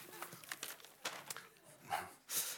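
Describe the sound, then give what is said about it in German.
Fairly quiet paper crinkling in irregular crackly bursts, ending with a longer ripping sound like a sheet being torn. No one speaks. “Das sieht jetzt leider so aus, aber das nennt man, wo gehobelt wird, da fallen Papierschnipfel.”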